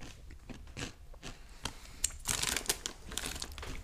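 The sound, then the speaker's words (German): Someone crunches and chews a crispy snack, with repeated crackly bites and chews that grow louder and denser in the second half. No one speaks. “Digga, die schmecken lecker. Die schmecken richtig lecker.”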